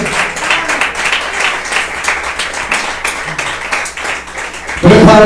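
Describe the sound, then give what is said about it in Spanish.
An audience applauds steadily in praise to the Lord, dense overlapping claps at a fairly loud level, with a voice rising at the very end as the clapping continues. “Y la forma de palmas al Señor, hermano, con todo su corazón.”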